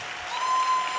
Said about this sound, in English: Come on, church. There we go. Hi, buddy. Come on, clap till it's awkward.